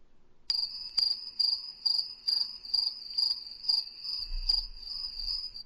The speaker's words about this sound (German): Hat man es gehört? Ich habe Grillengezirpe gehört.